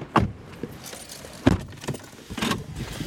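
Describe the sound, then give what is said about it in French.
Someone climbs into a sedan car: a few sharp clunks and rustles spread over a few seconds, with keys jangling and the muffled thud of a door, and no one speaking. “Ensuite, je suis monté dans la voiture qu'il avait choisie pour cette mission, une berline, et puis on est parti en planque.”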